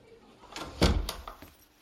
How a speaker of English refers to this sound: Mind closing the door?